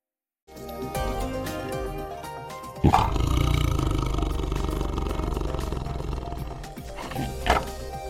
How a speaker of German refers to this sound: Na, nach Schmusekatze klingt das nicht, wenn ein Tiger, tja, was macht er ja eigentlich? Faucht, schnurrt?